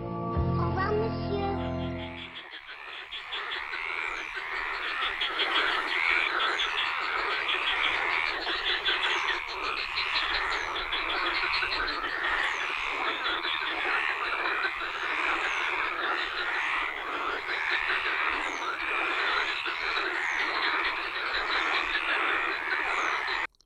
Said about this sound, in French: Ça, c'était des, des grenouilles de la Bastide d'Angras, près de Saint-Laurent-la-Vernède, au-dessus de Saint-Quentin-la-Poterie, euh, au-dessus d'Uzès. Enfin, c'est pas des grenouilles, c'est les, cris des grenouilles